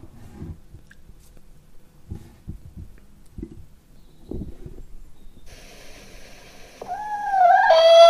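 A single hen clucks in soft, irregular low bursts, then ends with a louder, drawn-out tonal squawk that rises and dips, with no talking.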